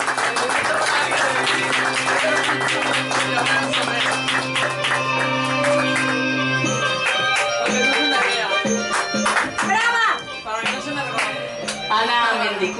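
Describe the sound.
A crowd claps steadily and loudly with a sustained tone underneath, then the clapping thins as voices and shouts rise over it toward the end.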